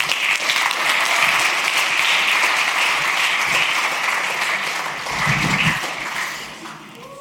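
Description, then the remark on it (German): An audience applauds steadily as people are called to the front to tell about their lives. A dense wash of many hands clapping holds strong for several seconds, with a brief murmur of voices near the end as the clapping begins to taper off. “Ihr dürft gerade führen kommen, einen fetten Applaus.”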